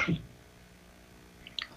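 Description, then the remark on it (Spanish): A short, sharp cough bursts out at the start, followed by a quiet pause and a couple of faint, clipped throat sounds near the end. “Perdón por las tosecitas.”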